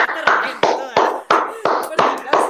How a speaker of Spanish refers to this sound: Un aplauso para esa